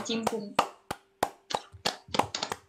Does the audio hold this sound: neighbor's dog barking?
no